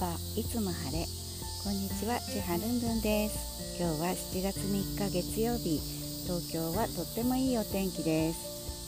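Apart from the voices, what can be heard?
cicadas buzzing outdoors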